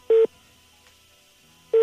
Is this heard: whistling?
no